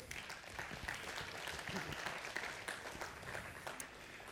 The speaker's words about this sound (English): So thank you. You guys can have a seat. Let's give the hype students a round of applause.